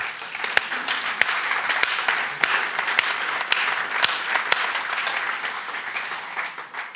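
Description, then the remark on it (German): Steady audience applause for having a building where the rain does not come in, many hands clapping at once, a dense crackling wash of claps holding at an even loudness for several seconds, with a few sharper individual claps standing out. “Wollen wir noch mal einen Applaus geben, dass wir überhaupt eine Hütte haben, wo es nicht reinregnet?”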